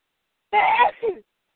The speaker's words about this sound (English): Bless you. Bless you.